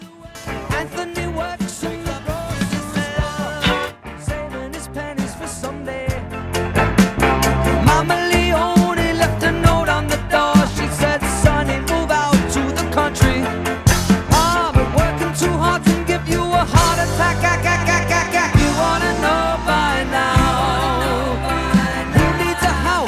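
A pop rock song intro plays alone, opening with a lighter passage before the full band kicks in around seven seconds with a steady, driving beat, loud.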